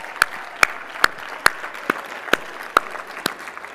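Slow, steady clapping, about nine sharp claps at an even pace, sounding like just one or two people rather than a full crowd. No one talks.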